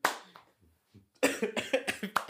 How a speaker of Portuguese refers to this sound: Espera que eu dei uma tosse, cara.